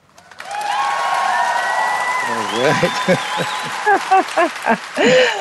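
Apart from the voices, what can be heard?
applause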